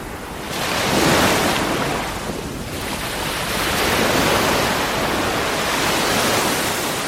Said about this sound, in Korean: 정답은 1번 부산 해운대였습니다. 1번 들어볼까요? 자, 바로 1번 부산 해운대 바다 소리였습니다.